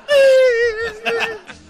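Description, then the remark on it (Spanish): A voice imitates a crying child: one long, high, wavering wail that sags slightly in pitch, then breaks into a couple of choppy sobbing bursts before trailing off. “y el niño está llorando.”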